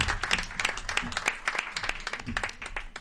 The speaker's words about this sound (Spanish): Un aplauso, un aplauso.